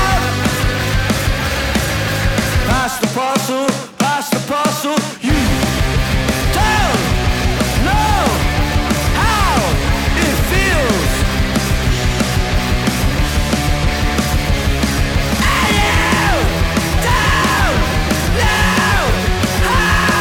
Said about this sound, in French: … s'inscrit dans le revival punk slash post-punk de ces dernières années